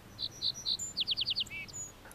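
A little bunting sings a short, high song: a few thin separate notes followed by a quick run of five sharp descending ticks, then a buzzy trill, heard clearly against a faint background hiss.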